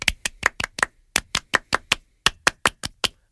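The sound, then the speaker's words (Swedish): Crisp hand claps in three quick groups of five, four and four, each burst tight and rhythmic with short pauses between, fairly loud with no talking: a short 'French applause' given to congratulate someone on a birthday. “Ja, men vi kan väl ge honom en liten fransk applåd.”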